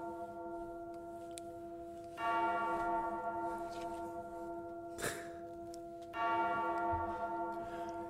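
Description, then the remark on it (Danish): Church bells ring out in a sustained, resonant peal, with two loud strikes about four seconds apart swelling the tone, and no voices over the ringing. “Kan I høre, det ringer ind?”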